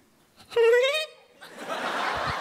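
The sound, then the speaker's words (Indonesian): A voice imitates the laugh of a kuntilanak ghost: one high, drawn-out shrieking cackle on a single breath, loud, followed by a burst of breathy noise. “Kuntilanak ketawa tuh simple, padat, dan menyeramkan.”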